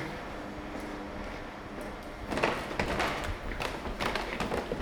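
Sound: footsteps running up stairs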